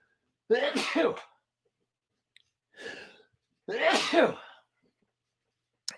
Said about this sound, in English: sorry, I had to sneeze